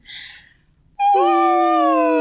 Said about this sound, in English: you hum all the way down to the lowest sound that you can make, and you end with an open ah. Okay. I will demonstrate. it sounds like this.